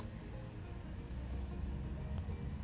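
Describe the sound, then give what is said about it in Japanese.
A car pulls out, its engine a steady low rumbling drone with road noise that holds at an even level throughout, with no one speaking. “車が、ゆって出てきましたね。”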